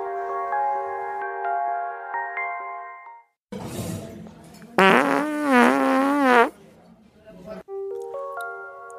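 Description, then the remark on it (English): Two loud fart sounds, a short sputtering blast followed by a longer, wavering, buzzy one, set between snippets of light, tinkling music, presented as highlights from the Cozy Corner Lentil and White Bean Festival. “WKMF Cozy Corner Public Radio proudly presents highlights from last weekend's Cozy Corner Lentil and White Bean Festival.”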